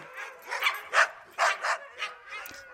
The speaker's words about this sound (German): Und ja, Hunde hatten die recht viele und die konnten ganz schön anfangen zu singen. schönstes Hundegeheul.